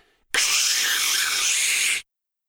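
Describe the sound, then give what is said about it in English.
A woman's voice makes a loud, sustained hissing noise for under two seconds, imitating radio static, steady, starting and stopping abruptly. “Then she went into an Oscar winning hissing noise.”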